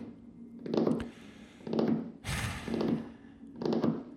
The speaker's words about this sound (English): I was sitting here wondering where you were, just drumming my fingers here on my desk.